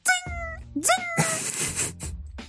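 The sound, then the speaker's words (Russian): A voice imitates Mario video game sound effects, such as Mario bumping into something from below the screen. It makes a few quick, pitched vocal bursts with sliding, whistly tones and a short noisy blip, one after another without any speech. “Вы сейчас услышали великолепные звуковые звука. эффекты в исполнении.”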